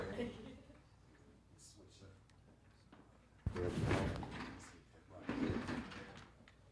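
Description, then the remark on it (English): A chair scrapes and thumps as it's shifted while someone switches seats, with two loud bursts of rustling and knocking about a second apart, while murmured voices sit faintly in the background. “switch chairs.”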